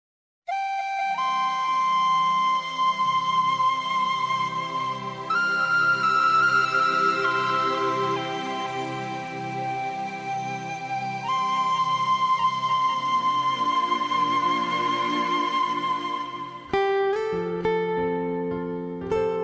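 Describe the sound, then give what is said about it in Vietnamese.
A pop song sung by a female singer plays loud and clear, with long sustained melodic notes over a steady pulsing low accompaniment, shifting to a new passage near the end; no speech. “cùng nghe ca khúc … do ca sĩ … thể hiện”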